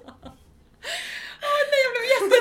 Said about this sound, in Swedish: rädd när du skrek!